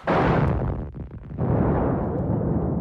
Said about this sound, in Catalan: dues bombes esclaten sense previ avís. La primera explosió causa el pànic entre la multitud i empeny la gentada cap a una zona on hi ha amagat un segon artefacte, dins d'una paperera que detona un minut més tard.